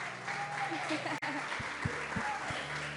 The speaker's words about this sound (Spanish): Otro aplauso, por favor.